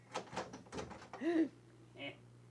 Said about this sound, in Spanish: ¿Y usted por qué abre la puerta sin, sin, sin...?